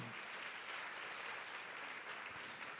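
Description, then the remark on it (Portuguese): An audience applauding the Lord in praise, steadily, a dense wash of many hands clapping at once that holds at an even level throughout, with no voices rising above it. “Você pode aplaudir o Senhor, irmão, para a honra e glória dele.”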